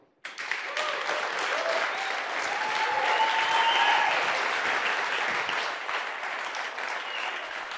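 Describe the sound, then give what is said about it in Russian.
A large audience at a Surface product presentation breaks into sustained applause for Penos, a dense, steady wash of clapping that starts abruptly and holds at a fairly even loudness for several seconds, with a few whoops rising above it. “И, реально никому не хлопали, как, как Пеносу за всю презентацию.”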